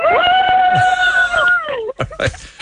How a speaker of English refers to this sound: let's see what kind of noise four or five of you can make in your own time. Give us a big cheer.